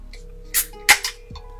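A can of 2.8-degree beer is cracked open to drink: a faint click and a short scrape, then a sharp pop with a brief burst of fizzing hiss, ending in a soft tap. No one speaks.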